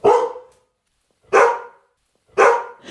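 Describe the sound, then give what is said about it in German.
A Labradoodle (Labrador and standard poodle mix) named Chini, a trained reading dog at a primary school with a fluffy dark brown coat, barks three times: loud, full-bodied woofs spaced about a second apart with brief silences between, and no one talking. “Chini ist ein Labradudel, also eine Mischung aus Labrador und Großpudel.”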